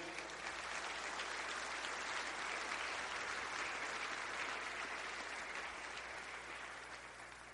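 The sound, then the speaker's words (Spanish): An audience at a Spanish-language church service claps for the Lord in sustained, dense applause, a steady wash of many hands that holds strong throughout and tapers slightly at the end, with no speech over it. “¿Le podemos dar un aplauso al Señor?”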